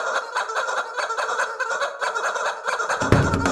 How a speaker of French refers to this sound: C'est sans doute ce que c'est dit … quand il a eu l'idée de jouer de la batterie en utilisant deux poulets en plastique à la place des baguettes. Pourquoi pas Et il a eu raison d'essayer, c'est sympa.